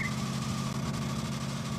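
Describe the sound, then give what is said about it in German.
A steady, low engine drone fills the cabin of a moving taxi carrying four people as it makes a getaway, constant and fairly loud throughout, with a faint higher whine above it and no voices. “Wir sind in meinem Taxi. Wir machen uns gerade aus dem Staub.”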